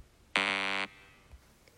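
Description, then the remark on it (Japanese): A single harsh buzzer tone, set off by pressing a 'boo' button, sounds for about half a second, loud and steady with a rich stack of harmonics, then cuts off abruptly, like a game-show wrong-answer 'boo' effect. “この拍手は押すの失敗するのに、ブーはすぐに押せるって、なんかめっちゃ悔しいです”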